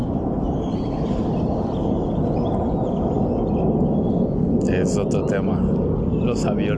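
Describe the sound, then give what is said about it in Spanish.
A steady, low roar of an airplane passing overhead fills the whole clip, loud and broad, with a few faint bird chirps near the end and a murmur of voices underneath. “Aquí por aquí pasan un chingo de aviones.”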